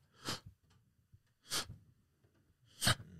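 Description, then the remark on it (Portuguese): Three loud, harsh, noisy breaths spaced about a second and a half apart, each a strained, raspy rush of air, made by a person imitating the labored, obstructed breathing they had during allergy attacks, with quiet gaps between. “Essa era a minha respiração.”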